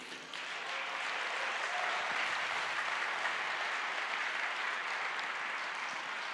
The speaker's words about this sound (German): Ihr könnt ihnen schon mal vorneweg einen Applaus geben.